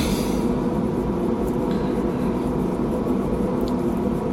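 air conditioner running

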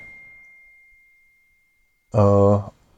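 phone message notification ding

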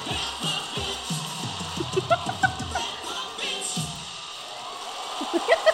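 audience screaming and cheering

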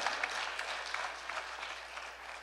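audience applause

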